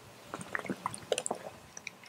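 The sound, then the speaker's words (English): Someone takes a sip of water, with soft wet mouth clicks, a small slurp and quiet swallowing sounds scattered over two seconds, fairly faint, with no talking. “Let me grab a sip of water.”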